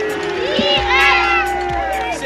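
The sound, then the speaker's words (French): A crowd of several hundred people in the port of Brest cheers and shouts continuously, welcoming a sailor arriving after 107 days at sea. Whistles and high voices rise over a steady roar of many people, swelling briefly in the middle. “Et donc après 107 jours en mer, c'est enfin l'arrivée, accueillie par plusieurs centaines de personnes dans le port de Brest en héros.”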